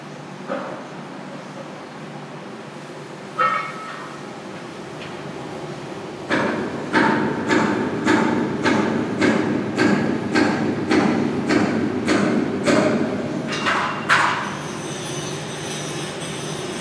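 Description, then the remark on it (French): Workers hammer on a ship's hull: a steady run of about a dozen sharp, ringing metal strikes, fairly close, over a constant low industrial rumble, with a few scattered clanks before. “Les hommes s'attellent à la coque du bateau comme corps d'une baleine, la gueule béante.”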